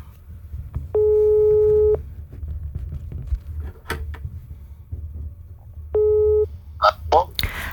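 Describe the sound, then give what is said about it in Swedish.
Two steady electronic ringback tones on a telephone line as a call is placed to a guest, the first about a second long and the second shorter after a long pause, over a low hum with a few clicks at the end. “Så var med när signalerna går fram här.”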